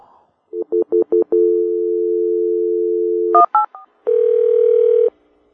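A quick run of four electronic keypad beeps, then a long steady phone tone, a few more dialing beeps, and finally a buzzy tone lasting about a second, as a phone call is placed. Clear, with no voices.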